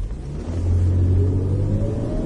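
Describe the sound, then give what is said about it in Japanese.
A Land Rover Freelander loaner car's engine: a low, steady rumble from inside the moving vehicle, with a brief rise in revs near the middle; no one speaks. “今回あの台車フリーランダーっていうやつなんだけど、うん、ランドローバーすごい運転しやすいねこれ”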